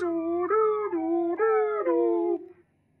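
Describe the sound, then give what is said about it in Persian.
An ambulance siren wails in city traffic, alternating between two pitches in a steady hi-lo rhythm for a few cycles before cutting off into quiet, as a car driver pulls over to let it pass. “صدای آمبولانس از فکر آوردتم بیرون راننده سری کشید کنار”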